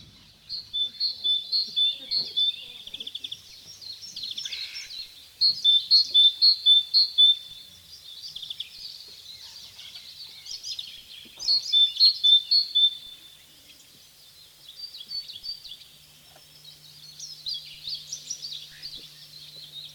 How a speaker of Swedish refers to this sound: Redan Eh, på, på eh, nyår började jag lyssna efter den. Den är en glad trudelutt i, en, i, i vintern. Och nu, eftersom vi har sån här eh, folkbildningsambitioner, så ska ni få höra talgoxen sjunga en liten stund. Varsågod.